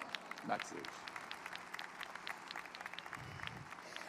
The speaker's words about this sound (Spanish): un aplauso para ella, por favor.